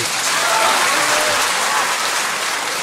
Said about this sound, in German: Und als donnernder Applaus ertönte,